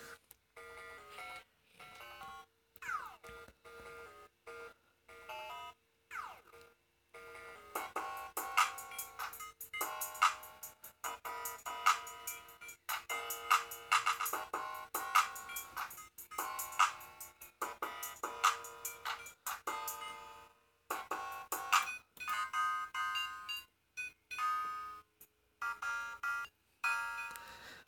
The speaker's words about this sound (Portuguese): Tipo, com o barulho de um piano, consegui fazer isso daqui, tá ligado?